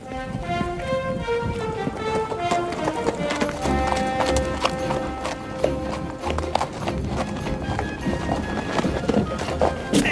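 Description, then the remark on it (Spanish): Horses gallop steadily in the full-motion-video western game Mad Dog McCree, hooves clip-clopping in a quick repeating rhythm, set against a sustained musical backdrop with a faint whinny; no one speaks. “Tenemos el desierto, tenemos los caballos, tenemos la gente que hace piruetas con el arma y demás.”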